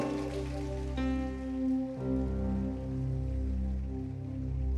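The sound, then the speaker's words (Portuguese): An audience applauding the Lord in a steady, crackling patter, with sustained keyboard chords ringing out loudly over the clapping and shifting a couple of times. “Pode aplaudir o Senhor?”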